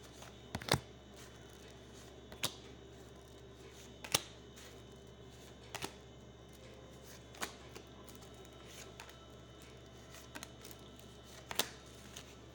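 Cards being shuffled for a partnership card reading, a series of soft, papery snaps at irregular intervals over a steady low hum, with no one speaking.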